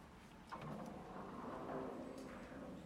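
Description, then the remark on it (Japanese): A soft mechanical whoosh starts about half a second in and holds steady as the automatic sliding door at the main entrance of a lodging building opens onto the front lobby. It is quiet, with no voices. “自動ドアが開かれるとすぐそこはフロントロビーだった”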